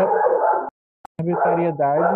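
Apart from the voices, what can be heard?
dogs barking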